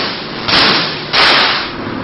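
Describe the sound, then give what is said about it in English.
Loud, harsh crackling buzz of an artificial lightning bolt, a current of electricity, striking a metal cage, with two sharp bursts in quick succession, each fading slightly as it sizzles on. No talking. “That lightning bolt is a current of electricity. It strikes the cage, and that turns the entire cage into sort of a giant magnet.”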